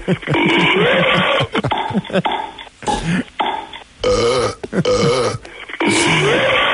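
A recorded novelty song, the second track on a CD, built from loud, drawn-out burps, one after another in a rhythmic, sung-like pattern with pitch glides, dry, with brief pauses between belches.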